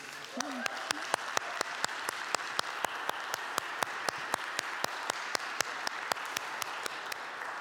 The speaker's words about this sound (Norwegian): Skal vi gi dem en applaus?